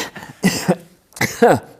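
human body sound, coughing

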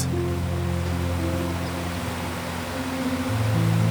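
nature, flowing river water

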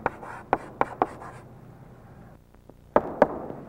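tool, writing on a board

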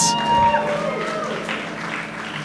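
crowd, applause

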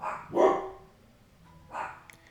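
animal, dog barking

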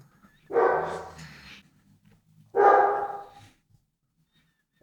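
animal, large dog barking

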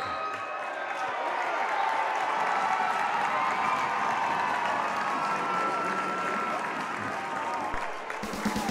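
crowd, basketball crowd cheering

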